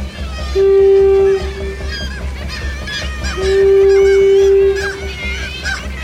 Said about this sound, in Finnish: Mutta jos ohitse kulkeva laiva törähdyksellään säikähdyttää pahtakansan, niin koko kallioseinä ihan lehahtaa lentoon ja alkaa elää ja kuhista kuin suunnaton ampiaispesä. Toinen, kovempi törähdys ajaa esille yhä suuremmat joukot.